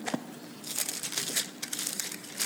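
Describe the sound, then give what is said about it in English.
Thin Bible pages being turned to Psalm 84: a run of soft, crinkly paper rustles and flutters over a couple of seconds, fairly quiet, with no talking. “Across to the new, back to the old, pages turning.”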